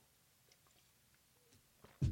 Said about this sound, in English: let me get a quick sip here.